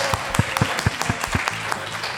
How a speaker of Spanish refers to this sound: Un aplauso, por favor.